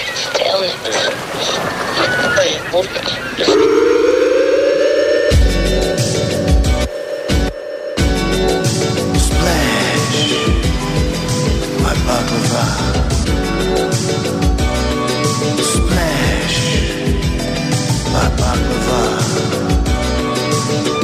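A hip-hop track plays loud, opening with a sustained synth tone before a dense, steady thumping beat kicks in and runs throughout, with vocal-like layers over the rhythm.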